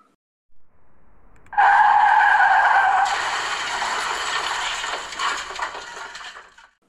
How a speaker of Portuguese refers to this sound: Assustado, o motorista buzina. O carro derrapa. A galinha sai gritando desesperada e o carro bate na árvore.